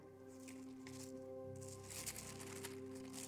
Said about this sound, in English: Oh, I've got paper clips in my Bible. Let me remove those so I can get to this passage. Well, that's from a wedding and a memorial.